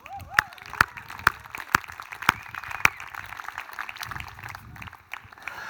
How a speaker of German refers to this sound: Erstmal für die Schutzmaßnahmen an die Regierung, Applaus und für unser Team, diese Leute haben hier übernachtet, um das aufzubauen, damit du hier sein kannst, damit wir gemeinsam Gottesdienst feiern können. Dafür gibt es noch einen extra Applaus.